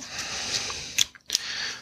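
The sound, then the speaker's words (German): A rubber locomotive stamp pressed onto a white sheet of paper: two brief, soft crunching contacts about a third of a second apart, with faint rustling and a steady hiss underneath. No one speaks. “Diesen werde ich jetzt live in diesem Podcast auf ein weißes Blatt Papier drücken.”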